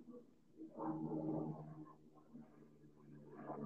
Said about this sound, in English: No, I was just hearing like this plane flyover wars kind of fucking me up